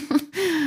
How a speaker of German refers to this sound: Also, falls ihr jemanden schnarchen hört, das ist mein Hund. ich finde das ziemlich unverschämt gerade. Ich bin hier voll am Aufgehen in der Anatomie und der schnarcht.